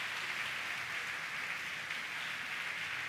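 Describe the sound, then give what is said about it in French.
An audience applauds steadily, a dense, continuous wash of many hands clapping with no pauses and no voices heard over it. “nous avons un petit campé, pour nous faire un gros applaudissement avec les gens qui permettent nous là.”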